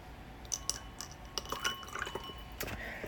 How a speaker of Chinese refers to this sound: 好，那我们先把它倒出来，然后来也是要观察一下它的色泽以及闻一下它的气味。